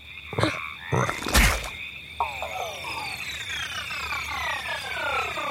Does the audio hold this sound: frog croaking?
yes